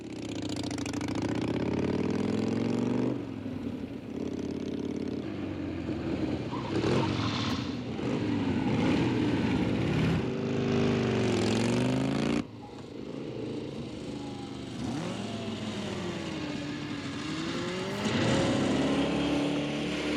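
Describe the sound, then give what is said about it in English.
Several motorcycle engines rev and rumble continuously, pitch rising and falling as throttles open and close, loud, with no talking. “somebody said, wouldn't it be neat to jump a motorcycle off this aircraft carrier?”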